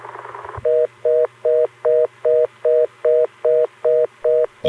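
A loud telephone tone at around 400 hertz pulses in a steady on-off cadence, about eleven even beeps, heard alone after a brief burst of line noise at the start.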